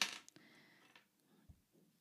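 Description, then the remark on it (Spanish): A pen drops onto a hard surface: one sharp clatter with a short metallic ring, then a couple of small bouncing taps fading into quiet. No one speaks. “Esa es mi boli, perdón.”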